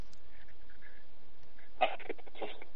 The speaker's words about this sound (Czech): Ježíš, máš jaký špatný spojení, hele. Strašně vypadáváš.